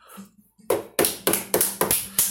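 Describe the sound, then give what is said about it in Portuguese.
Five sharp knocks on a door at a steady pace, each a crisp hard rap that fades quickly, preceded by a faint low murmur. “Então, o lobo chegou e bateu na porta.”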